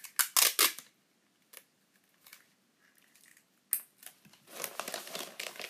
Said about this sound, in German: Junge, ich hasse Tesafilm.